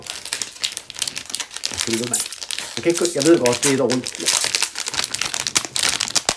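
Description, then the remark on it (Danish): Loud crinkling of a plastic food wrapper being pulled open, crackling steadily for several seconds while a person talks over it. “Kan du lige have lov at åbne den der plads Jeg, jeg, godt, jeg vil ikke larme jo, midt i din...”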